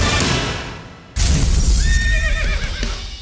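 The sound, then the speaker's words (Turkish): A horse neighs loudly, a sharp whinny with wavering pitch that breaks in after a fading noisy swell and rings on for a couple of seconds, with no talking. It is the neigh of a unicorn in a Samsung advert by director Tim Burton, shown at the 85th Oscars. “Bir unicorn, tek boynuzlu atın oyunu nasıl olur sorusuna yanıt arıyordu.”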